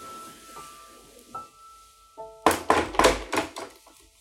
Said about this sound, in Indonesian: Tiba-tiba dari atas mobil atau kap mobil terdengar suara ketukan seperti orang ingin bertanya.